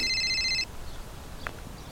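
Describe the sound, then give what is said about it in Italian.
A short burst of a high, electronic telephone ringtone sounds loudly and then cuts off abruptly, leaving quiet background hiss with a faint click. “Semplicemente ascoltando la suoneria di un telefono, senza guardare il display, capite subito di chi si tratta.”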